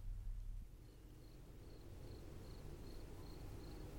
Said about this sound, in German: Zur gleichen Minute es war mittlerweile die 18. der laufenden Stunde hatten sich Jim Cooper und seine Leute wieder in Dickie Dick Dickens Garten eingefunden, wo immer noch die Grillen leise zirpten.